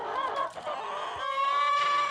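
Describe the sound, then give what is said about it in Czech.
A few hens in a village farmyard cluck and squawk, a busy overlapping chorus of short, warbling calls with a sustained higher-pitched note near the end, no talking. “Na dvorku měl pár slepic, pechlívků, jednu kozu, taky jednu kravku.”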